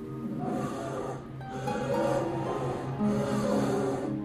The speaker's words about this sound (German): Doch dann hört ihr das Rufen der Eisbärenmama, die ihr Junges vermisst.